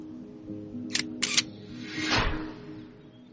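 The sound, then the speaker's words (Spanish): Two sharp shutter clicks from an old Nikon camera in quick succession, crisp and bright, taking a photo of two siblings before a hike, followed by a softer mechanical whir as the mirror or film advances, over a low steady hum with no talking. “Ponte ahí con tu hermano, le pedí antes de empezar la caminata, y disparé.”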